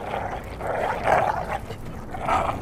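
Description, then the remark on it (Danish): Several sled dogs snarl, growl and bark in a chaotic fight that starts while a man fiddles with their harness, with rough overlapping bursts of aggressive noise rising and falling throughout and no talking. “Imens han roder med seletøjet, begynder hunden at slås.”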